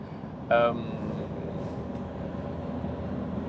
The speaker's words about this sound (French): Là, je suis encore en voiture. Je descends encore dans le sud.